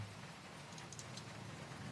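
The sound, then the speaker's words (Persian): Steady fine rain falls in a continuous, even hiss with soft patters of drops, quiet and unbroken throughout, with no voices. “هر وقت اینجوری بارون میمد پدرم زنگ میزد”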